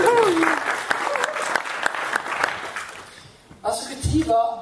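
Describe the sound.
An audience breaks into steady applause, dense clapping that fades after a few seconds as a man's voice starts talking over the tail end.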